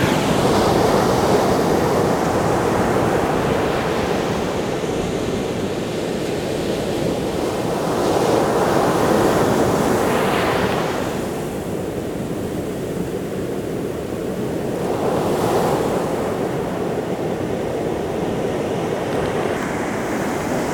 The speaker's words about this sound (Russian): идет большая волна, я думаю, сейчас будет очень хорошо слышно.